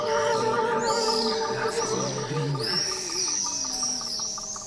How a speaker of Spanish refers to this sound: Las golondrinas.